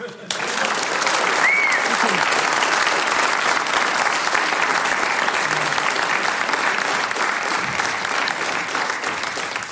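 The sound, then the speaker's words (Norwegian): Loud, sustained audience applause welcoming a guest who performs broadside ballads (skillingsviser): dense, crackling clapping that starts abruptly and holds steady for the whole stretch, with no clear voices rising above it. “En gigantisk applaus.”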